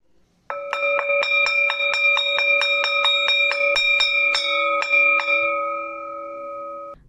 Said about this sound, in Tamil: மணி ஒலித்தது பள்ளி முடிந்தது